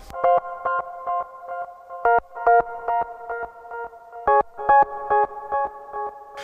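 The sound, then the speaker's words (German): A bright synthesizer riff from a song, with repeated staccato tones and a few brief sustained notes in a bouncy rhythm, steady and fairly loud with no voices. “Und das sind natürlich Sinti-Klänge.”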